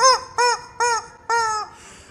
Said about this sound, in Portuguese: Segura a galinha. a galinha é louca, hein? Ah, a galinha é louca, né? Galinha maluca, né? Viva a galinha maluca.